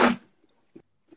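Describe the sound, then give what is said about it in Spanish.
A single sharp, loud sneeze bursts out and quickly fades, followed by a couple of faint, brief murmurs in the quiet. “Salud. Gracias, che.”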